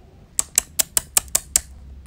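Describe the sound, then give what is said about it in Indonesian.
Seven crisp, evenly spaced key clicks from a laptop keyboard as someone works in a silent room, fairly quiet, tapping out a steady rhythm before stopping, with no voices. “mengerutkan keningnya dan menghentikan aktivitasnya di atas keyboard laptop.”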